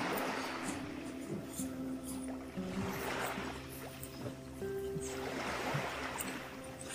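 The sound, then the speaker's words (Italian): Gentle water of the calm Tyrrhenian Sea, part of the Mediterranean, washes and laps against rocks in soft, recurring surges, with a steady watery hiss between swells and no voices. “Spero di non beccarmi un'onda in faccia che mi bagna tutto, ma valeva la pena arrivare fino qui, agli scogli.”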